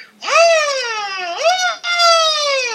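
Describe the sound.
A close, loud voice imitates a power drill whining against an electric guitar: a sustained, buzzy, high-pitched drone that swoops upward, dips and climbs again twice over about three seconds.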